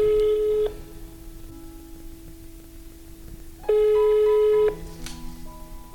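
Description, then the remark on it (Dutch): A telephone ringback tone sounds twice, each a steady electronic burst of about a second separated by a pause of a few seconds, fairly loud with no talking over it. “En deze aflevering begint met een telefoontje.”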